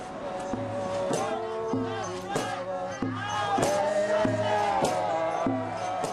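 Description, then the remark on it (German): A crowd chants protest songs in unison outdoors in the English countryside at Balcombe, a village in the south of Great Britain, over a steady drumbeat, voices rising and falling in a repeating rhythmic pattern at protest volume, with thumping beats marking time throughout. “In der englischen Countryside hört man Trommeln und Protestgesänge.”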